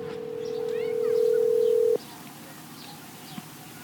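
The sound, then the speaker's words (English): A phone call tone, placing a call to bass fishing world champion John Cox, sounds as one steady, mid-pitched electronic hum for about two seconds, then cuts off abruptly, with faint birds chirping in the background and no talking. “let's give John Cox a call right now.”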